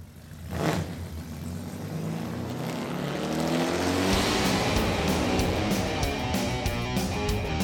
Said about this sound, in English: Okay, start your engine!